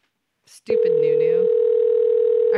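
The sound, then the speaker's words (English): A brief click, then a loud, steady telephone dial tone after the other person hung up the call, droning on without a break, heard alone with no voices. “He fucking hung up.”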